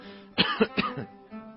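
A short, throaty cough made of three quick raspy bursts in close succession, fairly soft, with no talking around it.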